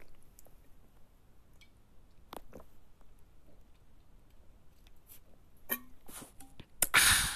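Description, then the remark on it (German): Quiet mouth sounds of someone drinking: soft wet clicks and gulps scattered across a few seconds, ending in a louder burst of noise. No talking. “Moment, ich trinke kurz Glocke.”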